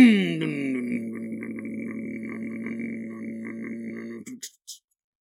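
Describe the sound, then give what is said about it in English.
A voice imitates a motorcycle engine winding down: a loud, sustained buzzing rumble with a falling pitch, then a few short sputtering bursts as it cuts out. “I should just stop doing this podcast and just do an episode, nothing but motorcycle noises. That one was pretty good.”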